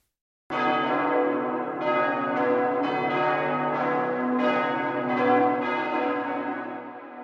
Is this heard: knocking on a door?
no